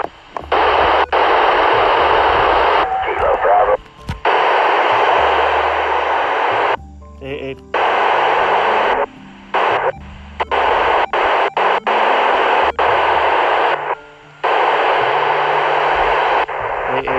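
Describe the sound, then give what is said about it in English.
Loud, dense interference and static on a ham radio hiss in bursts as an operator tries to get a contact through, broken by brief dropouts and faint warbling tones, with snatches of muffled voice buried beneath the noise. “trying to get through the QRM.”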